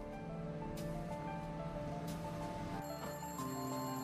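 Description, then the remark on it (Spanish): A telephone in a phone booth at a local store rings steadily with a bright, sustained electronic tone, over a constant background hiss resembling surf, with no voices. “El teléfono ya estaba sonando cuando llegó.”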